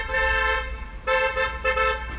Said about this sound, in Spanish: A ver, hay un coche aquí sonando la bocina, no sé qué quiere.